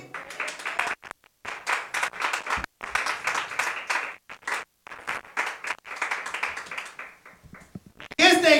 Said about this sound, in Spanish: palmas al Señor.